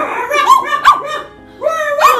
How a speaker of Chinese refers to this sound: 此时，他听到远处传来猎犬叫声